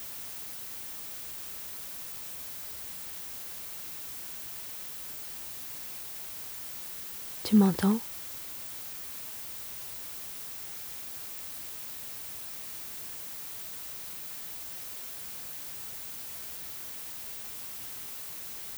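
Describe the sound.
A steady, unchanging hiss of white noise runs through the whole recording at a constant moderate level, interrupted only by a voice briefly speaking a few words midway.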